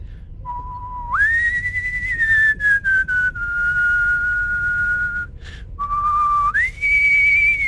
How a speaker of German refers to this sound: Hallo? Dein Kommunikator klingelt. Oh, das bin ich.